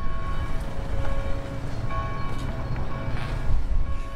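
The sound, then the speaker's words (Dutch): A bell rings with sustained, shimmering overtones that hang in the air, a few fresh strikes sounding over a steady low rumble, moderately loud and with no one speaking. “Nou, deze klok heeft heel ook horen luiden.”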